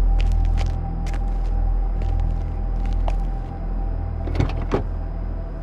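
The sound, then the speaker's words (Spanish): A car door is eased open slowly as a man gets out of the car, with scattered small clicks and a couple of sharper latch knocks near the end, over a steady low rumble and hum of the vehicle. “Después, abrió la puerta muy lentamente y descendió del coche.”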